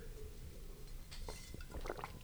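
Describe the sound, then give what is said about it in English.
Wet swallowing and slurping as someone gulps the last sip of a Belgian-style blonde ale, Black Abbey The Rose from Nashville, Tennessee: a few quick gulps of liquid with small squishy clicks, fairly quiet over a low background rumble, no talking. “man, I know I'm, I'm I got I got like maybe one gulp left here.”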